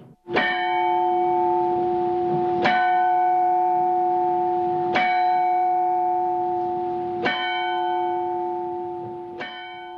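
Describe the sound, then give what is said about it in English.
A turret clock bell in the steeple of the north wing of the Royal Hospital strikes five times at a slow, steady pace, each loud, clear stroke ringing on with a long humming tone that overlaps the next. No voices are heard. “One of the most eye-catching features of the Royal Hospital is the steeple in the north wing. It contains a sundial and a turret clock,”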